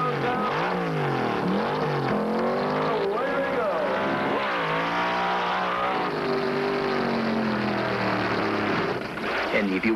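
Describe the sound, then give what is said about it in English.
A loud funny car drag-racing engine, run by Danny Ongais, roars for the full stretch, its pitch surging up and dropping back in repeated bursts as the throttle opens and closes. “Danny Ongais in particular, runs a car, and it looks as though the car is out of control for 1,320 feet, but he runs that thing faster than anybody else has been able to run a funny car this year.”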